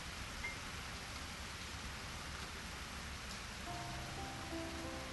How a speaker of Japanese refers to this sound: そこへ、ダメ押しの雨。それも大粒で激しさを増す。